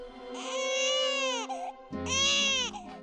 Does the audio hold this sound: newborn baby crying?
yes